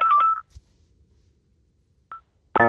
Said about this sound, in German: hier gar nicht auf zu klingeln, bin sehr gefragt heute.